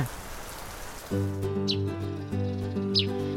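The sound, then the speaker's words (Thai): Two brief, high bird chirps ring out about a second apart in the morning over a steady rain-like hiss and low sustained musical tones; no one speaks. “เสียงนกร้องและแสงแดดยามเช้า ปลุกดูดี้ให้ตื่นขึ้นมาบนกิ่งไม้ที่ลอยอยู่กลางน้ำนั้น”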